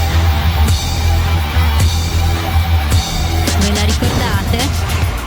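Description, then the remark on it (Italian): Loud, driving electronic music from an anti-piracy advert that played at the start of DVDs and cinema screenings, with heavy beats hitting at a steady pace under a dense, distorted synth texture, playing on its own without voices. “Sì, voglio riportarvi a quell'epoca in cui ogni volta che andavi al cinema o avviavi un DVD partiva questa simpatica musichetta, sentite un po'?”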